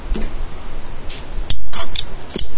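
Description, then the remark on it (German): A lighter is flicked repeatedly without catching, giving several sharp metallic clicks and scrapes spread unevenly over a couple of seconds, with a steady background hiss and no voices. “Das geht gar nicht mehr, das blöde Feuerzeug.”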